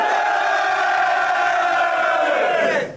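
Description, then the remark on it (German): A large crowd at a rap battle event roars and shouts together before the main match, a sustained, loud burst of cheering that holds steady for about three seconds, then quickly fades at the end. “Bock habt auf dieses Main Match, dann macht den Lärm eures Lebens!”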